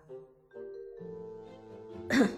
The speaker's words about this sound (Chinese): 咳嗽一声，沉声说道